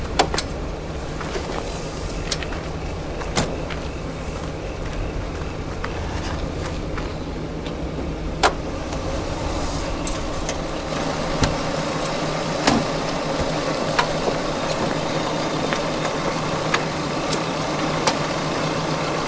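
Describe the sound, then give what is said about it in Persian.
A car engine idles steadily throughout, a low continuous rumble with occasional sharp clicks and knocks over it, moderately loud, no one speaking. “این صدای ماشین اینجوری بود اولش کار میکرد”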